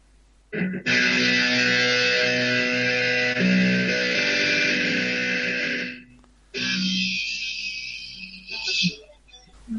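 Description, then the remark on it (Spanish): Electric guitar with heavy distortion: a loud, buzzy sustained chord rings for about five seconds, breaks off briefly, then a second gritty chord holds for about three seconds. “Ahora uno más estridente, un, distorsión.”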